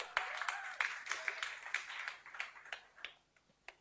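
An audience applauds, dense overlapping hand claps forming a steady bright patter that gradually thins out and fades toward the end, with a few isolated claps at the close.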